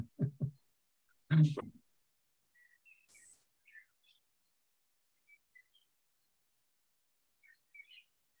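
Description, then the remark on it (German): Birds chirp and sing in short, scattered high-pitched calls, fairly soft, after a brief burst of voice at the start. Quiet stretches separate the calls. “Die Vögel kommunizieren bereits.”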